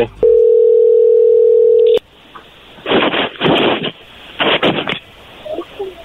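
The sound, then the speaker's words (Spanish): A phone line gives a steady, low-pitched dial tone for about two seconds, then cuts off as a call is dialed. Several short bursts of ringing follow in a broken rhythm. “Ok, bueno, ahí se está marcando.”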